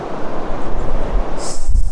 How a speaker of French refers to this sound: Ah, on a un petit peu de vent là qui, fait des siennes.